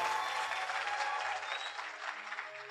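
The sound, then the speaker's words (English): An audience claps steadily for a few seconds for a speaker's message about marriage, a dense crackling patter of many hands that stays fairly even throughout, with no voices standing out above it. “Listen, if that word help you, you better clap for me.”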